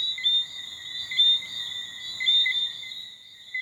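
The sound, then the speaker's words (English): A frog calls with a continuous high-pitched trill, steady and moderately loud, swelling slightly about once a second over quiet night ambience, with no voices. “Anyway, any ideas on what this frog is called?”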